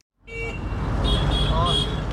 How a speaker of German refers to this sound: Auf den Straßen Nairobis wirkt es auf den ersten Blick nahezu anarchisch. Wild durcheinander. Autos, Motorroller und Matatus. Kunterbunt bemalte Kleinbusse, pickepacke voll mit Menschen.